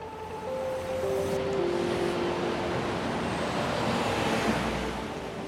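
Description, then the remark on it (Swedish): Steady roar of city street traffic in the South Seaport district of southern New York, along the East River, with cars and heavy vehicles rumbling past continuously and a faint hiss of air brakes, dense and fairly loud with no voices. “Och jag befinner mig just nu i eh, South Seaport-distriktet i eh, södra New York eh, och går här och letar efter en viss byggnad, nämligen kontoret i Rubicon, eh, APIs högkvarter.”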